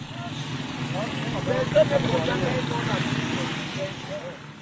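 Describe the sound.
Busy street traffic at 6 a.m. at a motor-taxi station in Mimboman, a busy district of Yaoundé, Cameroon: a steady rumble of engines, with short tonal bursts that could be car horns, and indistinct voices murmuring in the background throughout.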